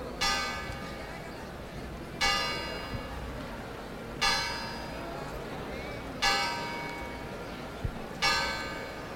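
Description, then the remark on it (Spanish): A church bell at the Basílica de la Esperanza Macarena tolls eleven o'clock on Good Friday morning, with slow, evenly spaced strikes about two seconds apart, each ringing out brightly and fading over a low background murmur. “con un poco de adelanto, porque el meridiano, los tonos dicen que faltan 15 segundos para las 11 de la mañana, pero hemos tenido el privilegio de escuchar esa hora en la mañana del Viernes Santo en la Basílica de la Esperanza Macarena”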